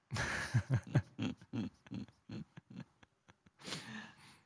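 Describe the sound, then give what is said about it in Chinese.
A teacher snoring a little, in a rapid run of rough, low, snorting grunts, around a dozen short bursts that taper off before a longer breathy snore at the end, with no talking. “有，我旁边的老师有打一点呼。”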